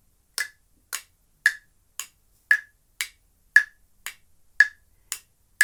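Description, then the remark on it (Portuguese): A steady series of about eleven crisp mouth clicks, evenly spaced roughly twice per second, imitating a clock's ticking. The clicks are clear, with no talking. “Vamos fazer barulhinho de relógio? Eu faço aqui e você faz com a boca, tá bom?”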